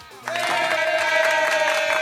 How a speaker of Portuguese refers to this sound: Vamos lá, 5 e 7, O Caio Machado, prepara por gentileza aí uma salva de palmas. para a gente colocar no ar, pode ser agora, viu?